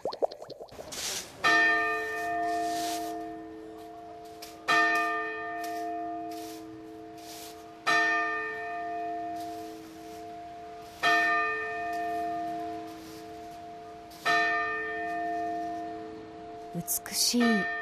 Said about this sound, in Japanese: 鐘の音が聞こえていますこれは札幌を代表する札幌市時計台の鐘の音なんですが